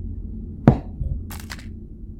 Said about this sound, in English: You hear things fall off a shelf.